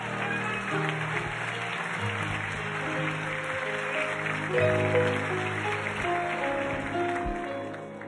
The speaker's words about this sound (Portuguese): Dá glória a Deus. Aplauda Jesus nesse lugar, irmão.